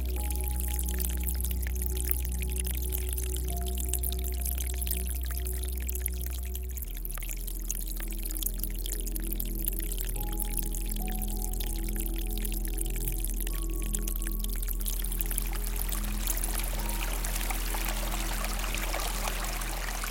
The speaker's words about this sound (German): Manche dieser Bäche sind winzig klein und filigran nicht viel mehr als ein paar silberne Fäden, die nebeneinander von Felsstufe zu Felsstufe verlaufen. Hier tröpfelt das Wasser ganz sanft, behutsam regelrecht.